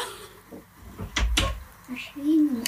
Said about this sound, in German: Irgendwer klopft. Hallo?